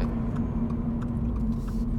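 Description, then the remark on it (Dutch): A car engine drones steadily, a low rumbling hum with a sustained tonal note as it keeps pulling, with no talking over it. “Blijft ook gewoon trekken, hè?”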